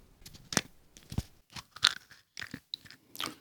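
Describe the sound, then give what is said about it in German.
Sharp crackling snaps come in short irregular bursts as the two halves of a chocolate egg, its foil wrapper removed, are broken apart and pried open, with no talking. “Staniolpapier jetzt äh, entfernt und würde es dann jetzt gerne schnell die beiden Hälften mal öffnen, bevor mir hier ja, die Finger klebrig werden.”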